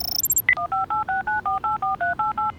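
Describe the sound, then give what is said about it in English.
A telephone number being dialed to call Tom's garage: a few quick high electronic beeps, then a steady run of about eleven evenly spaced two-tone keypad tones, each short and equally loud, with no one speaking. “Quick Scout, call Tom's garage and send him our location, please.”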